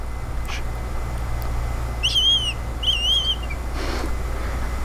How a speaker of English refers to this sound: Did you just run uh, 300 yards away and blow a whistle?